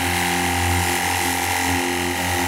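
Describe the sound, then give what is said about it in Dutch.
An EAFC 60-bar cordless high-pressure washer runs steadily, its loud motor droning with a rattling, pulsing pump beneath a broad hiss of spraying water, unbroken from start to finish with no voices. “EAFC 60bar Cordless High”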